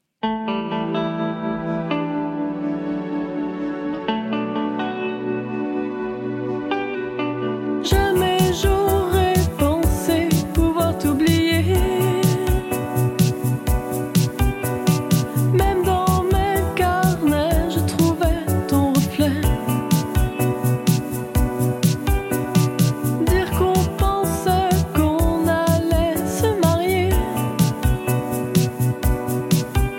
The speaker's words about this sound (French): On écoute le titre qui ouvre ce premier EP.